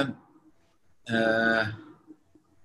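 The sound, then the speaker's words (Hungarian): A passing train makes a sudden loud, tonal blast that lasts under a second and then fades, leaving a quiet background. “és itt elmegy nálunk egy vonat, ezért lett ilyen hirtelen hangos, na mindegy.”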